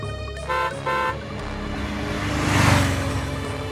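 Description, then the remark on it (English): A motor car honks twice in quick, loud bursts, then its engine swells and roars past, rising to a peak before fading slightly as it speeds along a road past a horse-drawn gypsy caravan. “Suddenly, a car goes racing past the caravan.”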